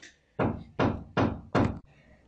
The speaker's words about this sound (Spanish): Perdón, es que los vecinos se pusieron a clavar. Perdón si escuchan ruidos.